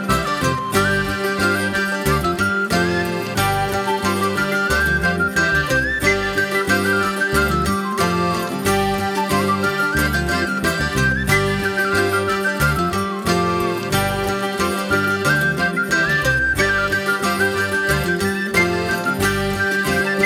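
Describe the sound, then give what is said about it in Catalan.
A flautist of a band plays melodic transverse flute lines over a driving rock band with steady drums and bass, loud and continuous throughout, with no voices. “Poc que tu pensaves, eh, que tornaries a escoltar la flauta travessera”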